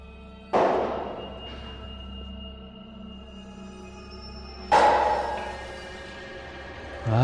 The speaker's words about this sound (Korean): 하지만 밤에는 그런 소리가 전혀 없으니 나는 별 생각 없이 지내고 있었는데 일주일 전부터 새벽 2시가 넘으면 항상 같은 패턴으로 쿵, 쿵, 쿵 하며 망치로 벽에 대못을 박는 소리가 들리기 시작했다.